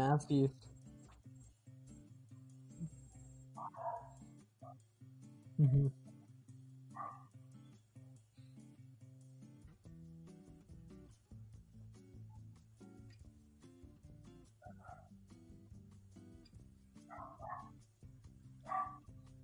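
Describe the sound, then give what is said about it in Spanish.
A female dog barks in short, scattered bursts, several separate woofs spread across the stretch, with a low steady hum and people talking in the background. “Esta perra, esta perra.”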